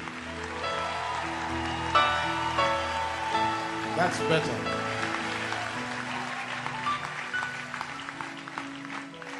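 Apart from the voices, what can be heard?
audience hand clapping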